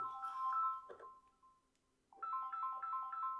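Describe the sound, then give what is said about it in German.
A mobile phone ringtone plays a repeating electronic melody of bright, steady tones, pausing briefly before starting again, clear with no talking over it. “Ich habe jetzt vergessen, das Handy auszumachen.”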